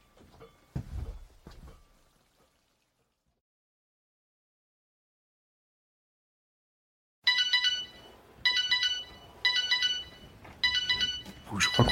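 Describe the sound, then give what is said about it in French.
After a few soft knocks and a long silence, an early-rising man's alarm clock starts ringing loudly in repeated bright electronic bursts separated by short gaps. “j'ai dû être réveillé par son réveil.”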